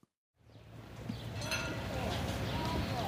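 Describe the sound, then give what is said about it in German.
Outdoor ambience at Großmann's horse farm (Großmanns Pferdehof) fades in after a brief silence, with scattered hoof clops and shuffling under a steady low rumble, moderately loud. “Das ist also Großmanns Pferdehof.”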